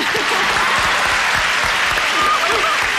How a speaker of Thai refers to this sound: ขอบคุณครับคือเสียงตบมือให้กับคนที่เลือกวงกลมทุกท่านครับ